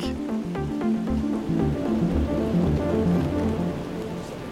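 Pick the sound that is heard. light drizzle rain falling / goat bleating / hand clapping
light drizzle rain falling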